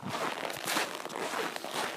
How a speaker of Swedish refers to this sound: Ja men absolut, och ni kan ju höra knastret under skorna.